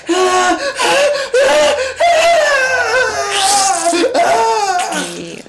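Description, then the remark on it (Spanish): A loud voice lets out acted screams of pain, as of someone whose leg is bitten off by a giant toad, in several strained, wavering bursts, rising and cracking over a few seconds with brief gasps between them and no other talk. “escucha los gritos de dolor de”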